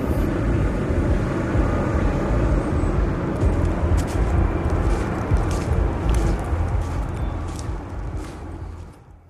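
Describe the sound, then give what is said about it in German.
A car turns around and drives along with a steady engine and road rumble, a few light rattles and clicks over it, easing off slightly at the end. No one speaks. “Und drehen wir um.”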